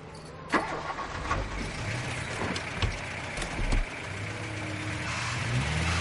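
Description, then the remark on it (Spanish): In daytime, a car with beach chairs loaded in its trunk starts: the engine turns over and catches, with a few sharp knocks along the way, then settles into a steady rumble that builds slightly as the car moves off. “Vos arranca y después te explico.”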